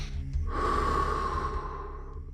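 A single deep breath drawn into the belly and chest and then let out slowly, a steady airy rush lasting a couple of seconds, fairly loud, with no talking.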